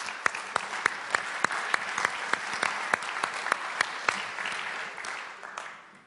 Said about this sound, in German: Und, ähm, und ein Applaus für den Autor, ja, für den Autor und die Band.